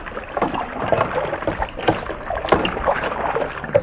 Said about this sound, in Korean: 이게요, 그, 펌프질 해가지고 물이 나오는, 네, 물 펌프 있잖아요. 그거예요. 사람 손 눌러가지고. 마중물 이렇게 넣고 이렇게 하는 거 있잖아요.